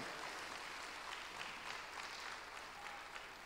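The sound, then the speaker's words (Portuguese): Sustained applause from a large group giving praise to the Lord during preaching, a dense steady patter of many hands clapping at once, fairly loud and continuous throughout with no voices standing out. “Você pode aplaudir o Senhor, dizer glória a Deus por isso, querido.”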